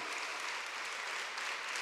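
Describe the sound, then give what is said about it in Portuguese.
An audience applauds the Lord, a dense, steady wash of many hands clapping together, bright and hissy, holding at an even level without pause and with no voices breaking through. “Isso é uma boa notícia para você, aplauda o Senhor, por favor, porque através da cruz isso foi restaurado.”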